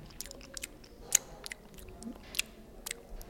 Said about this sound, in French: C'est beaucoup d'humour, c'est des bruits de bouche.